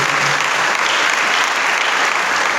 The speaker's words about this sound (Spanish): Denle un aplauso al Señor, por favor, en esta mañana.